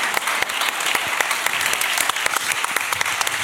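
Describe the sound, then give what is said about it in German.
A crowd claps steadily in applause for an audience member's shoes, dense overlapping handclaps forming a continuous wash of applause that stays fairly loud and even throughout, with no voices standing out. “Bitte Applaus für diese Schuhe, meine Damen ja.”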